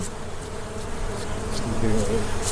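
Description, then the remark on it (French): A dense, continuous buzz of many honeybees, a steady droning hum that grows slightly louder and more agitated toward the end as the bees are swept off by a beekeeper. “Bah, on entend. Hein. Le, son a changé. Au fur et à mesure qu'on va les, qu'on, les balaye.”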